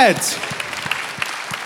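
Light applause: a thin wash of clapping with a few sharper individual claps at a slow, uneven pace, following a brief falling tone at the start.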